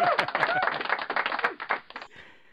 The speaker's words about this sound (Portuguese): Aplausos agora.